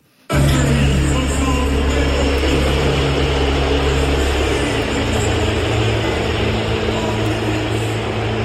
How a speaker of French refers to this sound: Voici comment il a été accueilli avec des sifflets, normal, il est au sifflet, à l'annonce de son nom par le speaker.